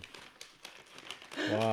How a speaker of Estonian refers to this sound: alustame siis sellest, et äh, meie saatepublik juba kuuleb põnevat krõbinat. ma teen lahti kingituse.